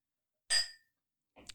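A single bright clink of wine glasses touching in a toast, sharp with a ringing tail that fades quickly, followed after a short pause by a brief soft rustle or bump.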